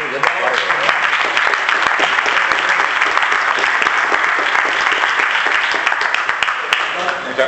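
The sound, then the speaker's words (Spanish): Sustained applause for the makers of a beer, a dense, steady wash of many hands clapping at an even loudness for several seconds without pause. “ellos son los que realmente se merecen un aplauso porque en estos tiempos apostar con una cerveza y, currar, y, y pelear y hacer una inversión grande como han hecho ellos, ya es digno de aplauso”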